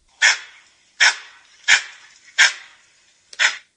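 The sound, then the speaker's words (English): A Cat Ba langur's alarm call: five sharp, harsh bark-like screeches repeated at a steady pace, each loud with a short ringing tail, and no voices in between. “and if you guys want to hear a langur call, this is an example of like a more of a, an alarm call.”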